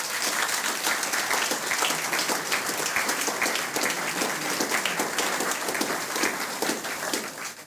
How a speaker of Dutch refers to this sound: ik heb nu even de kans, dus ook nog even vanuit mijn kant vraag ik uw applaus voor deze geweldige kunstenaar.